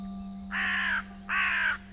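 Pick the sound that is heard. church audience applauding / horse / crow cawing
crow cawing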